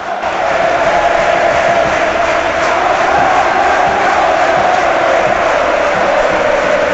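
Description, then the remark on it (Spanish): A football crowd at La Rosaleda stadium roars and cheers continuously near the end of a match in which Málaga leads 2-1. It is a loud, dense wall of voices with a sustained chanting tone running through it, steady from start to finish. “El ambiente es espectacular en la Rosaleda y con esta bola que ponga Javi Jiménez debe acabar el partido en Martiricos.”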